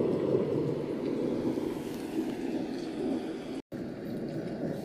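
A steady, dense roar of storm wind and rain that never lets up, broad and rushing with a low heavy body, briefly cutting out for a moment near the end.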